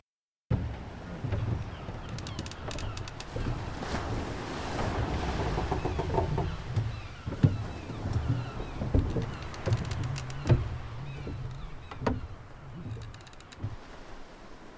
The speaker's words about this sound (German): So Meeresrauschen und so knarzende Bretterchen die ganze Zeit. So, so, so eine alte Kaschemme. So ein paar Möwen im Hintergrund.